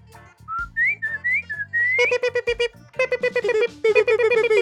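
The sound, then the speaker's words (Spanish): Someone whistles a short, wavering tune, followed by a quick run of bright, rhythmic electronic chirps from a keychain finder attached to keys, repeating in bursts until the end. No one talks. “¿Le chiflabas y ya?”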